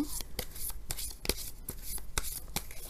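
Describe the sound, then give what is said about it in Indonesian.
Tarot cards being shuffled by hand for a reading, a steady series of crisp papery slaps and flicks roughly every third of a second, fairly quiet, with no one speaking. “kartu yang keluar adalah Wheel of Fortune.”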